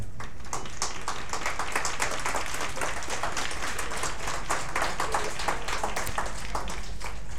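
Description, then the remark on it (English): A big round of applause from grade seven schoolchildren for the work of Ambassador Sitaro of Romania, dense overlapping claps sustained steadily for several seconds at a moderate, even loudness, with no voices standing out. “Uh, if the grade sevens can give us a big round of applause uh, for the work of Ambassador, uh, Ambassador Sitaro of Romania, where are they?”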